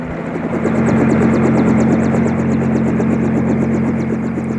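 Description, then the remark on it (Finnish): A loud helicopter approaching and landing, its steady engine drone and rapid rotor chop filling the air continuously, with no voices heard. “Kuulet sä, helikopteri tulee.”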